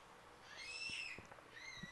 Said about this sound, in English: Screaming Baby, in case you didn't hear it, if your podcast was on quiet in your office or something.